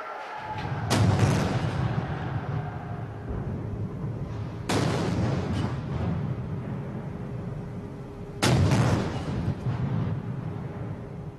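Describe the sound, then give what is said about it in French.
Cannons fire a salute for Napoleon Bonaparte's imperial procession as it leaves the cathedral and heads toward Place du Châtelet: three heavy booms at steady intervals of a few seconds, each rolling into a long rumbling echo, with no voices. “Quant à moi, je vais vous dire au revoir avant que les canons ne se mettent à tirer pour saluer le cortège impérial qui va se diriger vers la place du Châtelet.”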